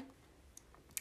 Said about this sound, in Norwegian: Og peisen, den brenner, så du kan høre ilden i bakgrunnen.